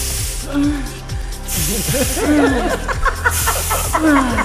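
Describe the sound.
A dry ice fog machine hisses in loud, broad spraying bursts that come and go, while voices and rapid ticking clatter continue underneath throughout.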